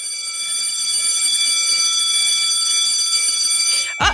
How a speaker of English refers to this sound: That's my bell signifying it's time to wrap the show.